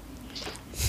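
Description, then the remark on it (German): Crinkling of a plastic bag as a cat lying on it shifts, with a brief soft rustle that swells into a louder, sharper crackle near the end. “Nein, zuerst hat sie mit Papier gespielt und dann jetzt liegt sie auf einer Tüte rum.”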